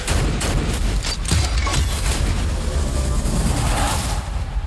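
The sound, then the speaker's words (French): A dense, continuous barrage of booming explosions and gunfire-like blasts from a film trailer, loud, rumbling heavily with crackling bursts layered over a sustained roar. “Alors, euh, hormis les deux minutes d'explosion, je vais essayer d'être concis sur le film.”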